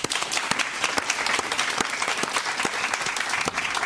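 Steady applause from an audience for a contestant who finished eighteenth in a competition. Many hands clap in a dense, even wash that holds at a constant moderate loudness throughout, with individual sharp claps standing out now and then.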